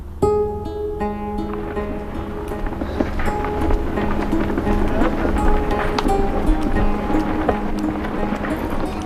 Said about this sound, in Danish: Et enormt afghansk flag vejer i den lune, knastørre vind på toppen af Wasiach Bahan-bakken i Kabul.